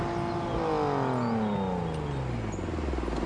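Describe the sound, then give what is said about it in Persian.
A car engine winds down, its hum dropping steadily in pitch as the vehicle slows and pulls over on arriving in the north (Shomal), continuous, with no voices. “چرا وایسادی؟”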